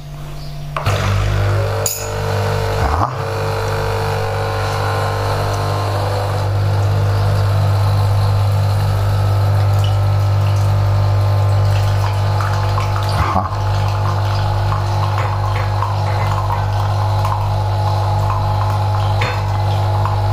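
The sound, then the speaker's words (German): A coffee machine pumps water while making coffee, with a steady, loud droning hum and a rushing, hissing flow. It starts after a brief pause and runs unbroken for about twenty seconds, with a few faint clicks. “Dann wollen wir mal den Kaffee machen.”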